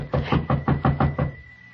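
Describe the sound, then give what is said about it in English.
A quick, even run of about seven solid, fairly loud knocks on a wooden cabin door, followed by a brief quiet. No one speaks. “Someone at the door.”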